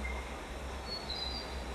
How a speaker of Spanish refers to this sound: y empiezo a escuchar las cataratas de fondo, el agua que corre